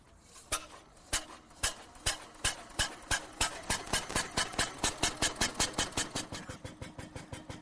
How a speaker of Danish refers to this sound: Men hør nu, nu får de startet motoren på den allerførste bil